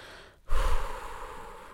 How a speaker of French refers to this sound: En fait, je fais un pas en arrière, je fais ma petite respiration